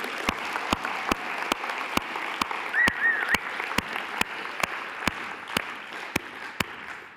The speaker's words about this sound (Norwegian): Skal ikke vi gi de skikkelig klapp og vise at vi heier på de?